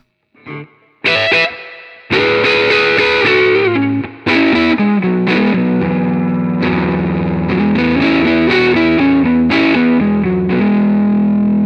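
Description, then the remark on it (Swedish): Loud distorted electric guitar played on the neck pickup, a run of strummed chords and ringing notes with a warm, thick low end, each attack sustaining into the next, with no talking. “Och sen så halsmicken då.”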